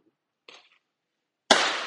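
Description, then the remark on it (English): Neighbors set off fireworks in Brooklyn on July 7th: a soft, brief pop, then a loud, sharp bang whose crackling echo fades away. Nobody speaks. “It's literally my neighbors are busting the fireworks right now.”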